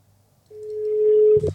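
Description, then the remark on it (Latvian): An outgoing phone call's ringing tone sounds once: a single steady, mid-pitched beep lasting about a second and slowly swelling in loudness, then cut off by a short clunk. “O, mēs zvanām.”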